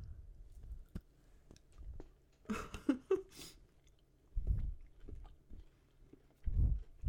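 A crisp snap of someone biting into white chocolate, followed by several seconds of soft, wet chewing and smacking, with no talking.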